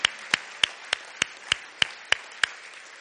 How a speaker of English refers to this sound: Hey, if you're happy Jesus is on the throne and you're with him, just give him a round of applause right now.